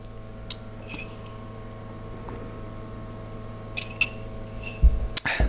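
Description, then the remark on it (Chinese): Someone takes a drink of water: a few faint clicks, then a soft glass clink and small swallowing and mouth noises near the end over a low steady hum. No one speaks. “先喝口水啊”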